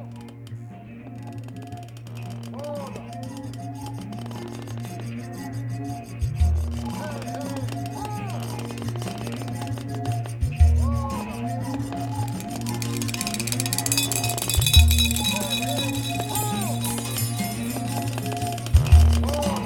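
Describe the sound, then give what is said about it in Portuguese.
In a 2005 recording by a French group, a twanging berimbau plays a repeating rhythmic pattern with bending tones over steady low drone and shaker-like percussion, with heavier hits every few seconds and a bright rattling texture building toward the end. “onde temos a percussão e o berimbau tocados por ele bem em evidência.”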